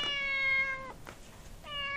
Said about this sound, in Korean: 야옹. 야옹?